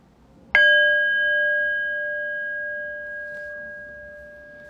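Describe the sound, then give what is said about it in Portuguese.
A meditation bell is struck once, sharply, to end a formal meditation practice, then rings on with a clear, steady tone that fades slowly over several seconds. No one speaks, and only faint background noise sits beneath it. “Então desliza na inspiração, se aquieta no centro e daqui a pouquinho eu vou convidar o sino a soar e a gente vai interromper esse momento formal de prática.”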